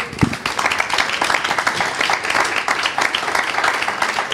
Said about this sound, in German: Vielen Dank für eure Zeit und einen kleinen Applaus für unsere Runde, bitte.